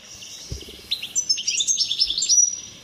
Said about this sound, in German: Ach, mein Kleiner. So ein fröhlicher kleiner Stiglitz. Stiglitz.